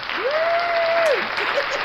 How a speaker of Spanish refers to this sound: Hay un aplauso para ella. A ver, aplauso.